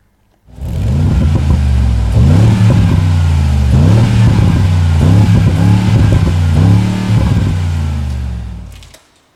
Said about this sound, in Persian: واقعا صدای خودرو اگه خودرو درست و حسابی باشه خیلی خوبه به صدای بنز جی کلاس گوش کنین همین الان